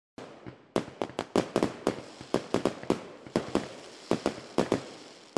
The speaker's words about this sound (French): les pétards de Tata la fascinent toujours autant.